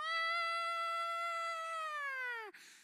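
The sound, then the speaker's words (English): A single sustained, wailing siren-like tone voiced by a person imitating an atomic bomb alarm, holding steady for over two seconds before sliding downward and breaking off abruptly, loud. “I suddenly feel like I'm in like, you know, there's like an atomic bomb like alarm sound like”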